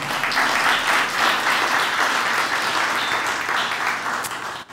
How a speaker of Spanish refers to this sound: bueno, démosle un aplauso al Señor entonces.